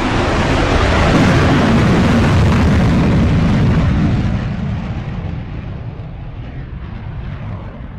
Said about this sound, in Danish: men jeg når lige akkurat at se flyene gå op.